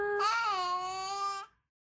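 A baby in a yellow fuzzy onesie, lying in a crib, lets out one sustained, high-pitched fussing wail lasting just over a second, its tone wavering slightly before cutting off into silence, as its mother sings to calm it, recorded on a phone video.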